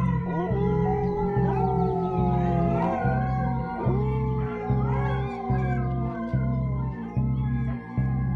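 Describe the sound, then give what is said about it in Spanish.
Several dogs howl together in long, overlapping, wavering cries that rise and slowly fall, loud and sustained over a steady low pulsing rumble that throbs in a regular beat underneath. “Escuché a muchos perros aullar.”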